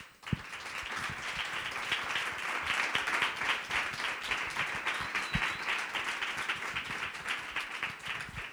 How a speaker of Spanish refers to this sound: es decir, que somos unos rendidos admiradores del primer invitado y que recibe este pedazo de aplauso porque ni más ni menos tenemos aquí a Manuel Javois.